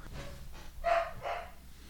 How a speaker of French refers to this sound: Je me demande si les gens entendent l'aboiement des chiens.